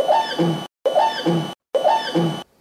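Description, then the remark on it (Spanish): An orca call, about one second long, repeated three times with brief silent gaps, each a strange, squealing cry in which a high whistling tone and a lower buzzing tone sound together, like two voices at once. “Bueno, bueno, lo que yo oigo, aparte de que parece un orangután, es como si hubiera dos voces, ¿no? Una frecuencia y otra en otra, dos voces en una sola.”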